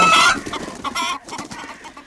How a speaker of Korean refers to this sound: 그리고 잠시 화장실 안에서는 아 정말 여러 마리의 철새떼들이 자유롭게 날아가는 소리가 들려왔습니다. 닭도 있네요.